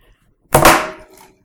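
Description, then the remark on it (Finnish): A mobile phone slips from greasy fingers and drops onto a hard surface with one sharp, bright clatter that rings briefly and fades, followed by a faint small rattle. “Puhelimeni tipahti, minulla niin rasvaiset sormet tästä, tästä.”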